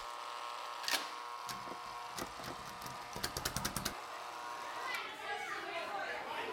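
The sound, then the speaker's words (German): A segment jingle of children playing outdoors, their voices bright, with a quick run of sharp tapping knocks partway through before the lively kid chatter carries on. “Yeah, can you insert jingle here?”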